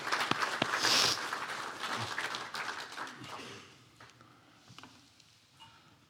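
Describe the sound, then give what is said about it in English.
An audience applauds to welcome a speaker up, with a dense patter of clapping that gradually thins and fades, leaving a few scattered claps near the end. “So, we should clap and welcome her up.”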